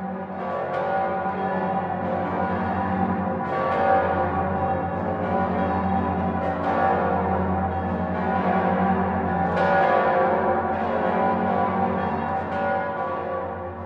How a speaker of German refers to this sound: Das Passauer Domgeläute zeichnet sich aus, weil es der tiefste Halbtonschritt ist, den man kennt.